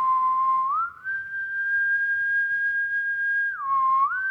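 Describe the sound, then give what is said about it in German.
A major blows a dragon whistle in one long, loud, pure tone that slides up from a lower pitch, holds steady for several seconds, then dips briefly and rises again at the end. “Er trank sein Wasserglas mit einem Zug aus und blies auf seiner Drachenpfeife.”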